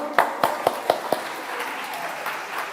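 Brief applause: about five sharp, evenly spaced hand claps in a quick steady rhythm, then a soft hum of background noise with no further clapping.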